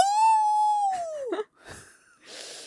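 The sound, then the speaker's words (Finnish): A woman's voice imitates the pained whimper she makes when her baby latches on during breastfeeding: one high, strained tone held for about a second that bends downward, followed by a short choked break and a couple of breathy gasps. “Mutta tota, nyt kun mä imetän, niin sitten se mun ääni on se...”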